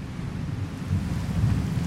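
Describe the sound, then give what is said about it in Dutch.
Heavy rain pours steadily while deep thunder rumbles low and continuous underneath, a dense, loud storm wash with no voices, as a storm breaks over the coast at Messina, Sicily. “De storm is nu echt wel aan het uitbarsten en de regen valt met bakken uit de lucht als we voet aan wal zetten op Sicilië.”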